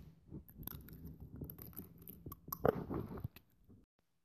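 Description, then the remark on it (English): Wet, clicking and sucking noises of an Invisalign plastic dental aligner being pried out of the mouth in a cafeteria, a slurpy crackle lasting a few seconds with a sharp snap near the end. “The noise it makes when you take it off is terrible, but luckily the cafeteria is a loud place.”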